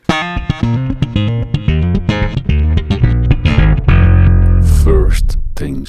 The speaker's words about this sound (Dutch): ik ga met een jingle lanceren van First Things First